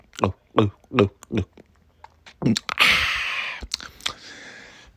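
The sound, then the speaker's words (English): A voice imitates ASMR chewing of eggs: four rhythmic, grunting mouth sounds, then a longer burst of wet, slurpy smacking and a few clicks, all fairly loud. “And I just start screaming, Oh my God, what's that? Oh my God, he's eating eggs.”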